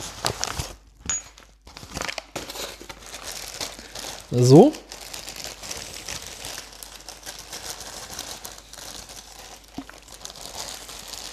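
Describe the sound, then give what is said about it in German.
Plastic crinkles steadily as another bag is unwrapped from a delivered parcel of pistons and piston rings, with a sharper rustling burst partway through. A man's voice briefly speaks over it. “Ah, noch eine Tüte?”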